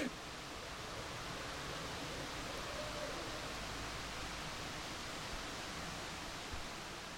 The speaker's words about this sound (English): you're hearing the sounds of the backyard I grew up in.